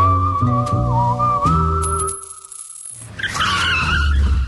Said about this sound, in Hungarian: Visszakapcsolunk kettesbe, és adunk egy kövér gázfröccsöt.